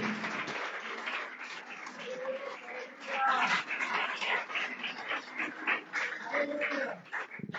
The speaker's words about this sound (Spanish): ¿Cuánto le damos un aplauso a ese Dios precioso que está aquí en este lugar, que hay que adorarse?